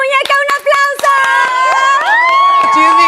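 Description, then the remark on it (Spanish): An audience claps and cheers as two performers are brought onto the stage, with sharp irregular hand claps in the first second under sustained high-pitched whoops and shouting voices that rise and continue loudly to the end. “Muñeca, un aplauso.”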